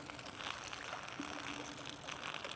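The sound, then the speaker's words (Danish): A steady, quiet trickle of urine splashing into toilet water as a person pees, continuous for a couple of seconds, with no voices. “og når urinrørets svingster åbner sig, fordi musklerne i underlivet slapper af, og blæren trækker sig sammen, ja, tada, så tisser du.”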